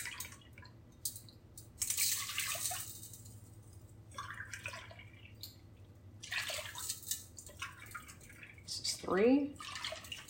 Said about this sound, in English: So, here comes the four cups of milk.